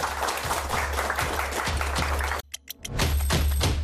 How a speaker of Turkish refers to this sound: E, alkışlarla oyuncu arkadaşlarımızı sahneye davet ediyoruz.